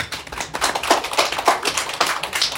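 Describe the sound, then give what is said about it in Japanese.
A small group claps steadily for a correct Bible quiz answer, with dense, overlapping hand claps that sound crisp and bright, forming a continuous patter of applause without any talking. “契約の箱ですね、はい、これは拍手してもいいですよね拍手さい”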